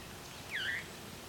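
A single brief, downward-curving whistled phrase of veery song, fairly faint over a steady hiss of background noise, with no one talking.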